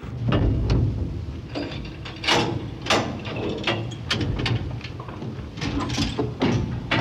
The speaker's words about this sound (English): Please stand clear of the closing door.